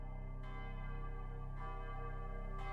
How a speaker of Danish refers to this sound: Præcis kl. 12 torsdag den 11. juni 1998 ringede klokkerne i Brøndby Strand Kirke ingen var i tvivl om for hvem.